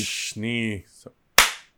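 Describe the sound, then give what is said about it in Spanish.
A single sharp, loud hand clap with a quick fading tail, following a short breathy noise and a brief sustained vocal sound. “El aplauso, aplauso. El aplauso. Aplaudí.”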